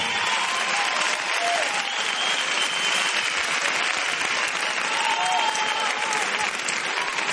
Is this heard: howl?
no